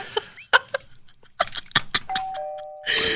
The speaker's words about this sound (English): Wind chimes need to be illegal. Oh God. The whole neighborhood Why? is kept awake and annoyed all the time because of one occupant wants to just share their love for the sound of clanging metal pipes.